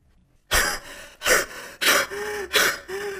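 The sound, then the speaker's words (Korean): Heavy, out-of-breath panting: four or five loud, rasping gasps in a quick steady rhythm, some with a slight voiced edge, as a person performs the exhausted heaving breaths of a work-team member who has come running and is bent almost double. “그는 거의 몸을 반으로 접고서 헐떡거리더니 내게 얼른 마을에 가보라고 재촉했습니다.”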